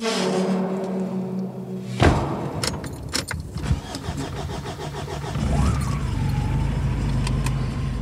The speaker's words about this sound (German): Mit dem etwas ramponierten schwarzen Pickup fahren wir hinunter zur Farm. Hinter der Fahrerkabine ist eine Pritsche, auf der Werkzeuge und eine Chipstüte bereit liegen.